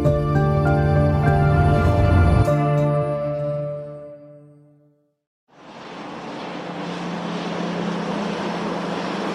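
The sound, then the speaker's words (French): A sustained tonal hum fades out into a brief silence, then a loud, steady roar of jet engines rises and continues unbroken as a blue and white military airplane marked United States of America lands at night at Taipei airport, 2 August 2022, 11 pm. No one speaks. “À l'aéroport de Taipei, l'avion militaire bleu et blanc marqué United States of America atterrit dans la nuit.”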